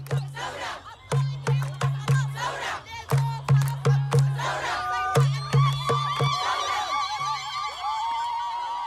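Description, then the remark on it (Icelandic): A crowd of protesters in Sudan, including young people, students, intellectuals, workers and many young women, chants slogans against Omar al-Bashir in a loud, steady rhythm, with sharp rhythmic beats punctuating each phrase and high whistle-like tones rising over the voices toward the end. “stilti sér upp kvítklæta og bílþökum og kyrjaði slagord”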